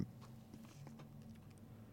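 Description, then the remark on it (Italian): Faint, scattered rustles and soft taps of papers being shuffled by a university rector about to speak at a crowded academic event, a few brief bursts over about two seconds against a steady low hum, with no one speaking. “Gestendo i fogli, ecco, eccoci qua.”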